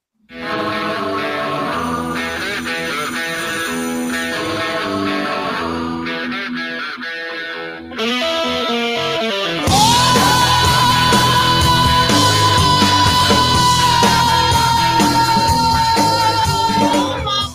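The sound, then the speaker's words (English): Loud distorted rock music builds, then a rock singer's high-pitched scream rises over the band and holds as one long, steady wail for several seconds, right up front in the mix. “So people like the whole … scream.”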